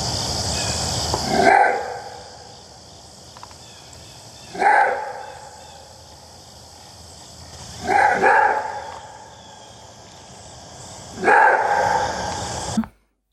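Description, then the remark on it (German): A maned wolf gives four loud, hoarse barking calls, evenly spaced about three seconds apart, over a steady hiss of background noise. Nobody speaks. “Also wenn ihr jetzt da einen Schrei gehört habt, dann wisst ihr jetzt, wie der Mähenwolf klingt.”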